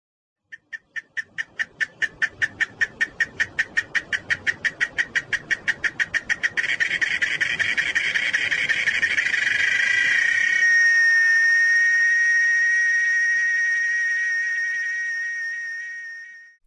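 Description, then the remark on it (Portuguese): A cicada sings alone, starting with a quickening series of sharp pulses that merge into a loud, continuous, shrill drone, which holds steadily and then fades out at the end. “Esse é o som da cigarra.”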